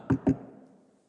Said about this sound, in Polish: Także nie otworzy drzwi. Rode jest tak zdziwiona, tak szczęśliwa, że kiedy Piotr puka